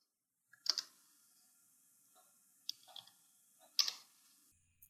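Slow, sparse keyboard taps, a handful of separate clicks spaced unevenly a second or so apart, like someone pecking out keys one finger at a time; fairly close and quiet, no voices.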